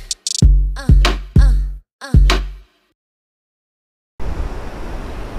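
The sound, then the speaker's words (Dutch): After a few ringing musical notes and a brief pause, a loud, steady rush of wind and ocean waves at the seaside in the south of France, at a quarter past nine in the evening, starts up and continues to the end, with no one talking. “Oh, ik zit heerlijk bij de zee.”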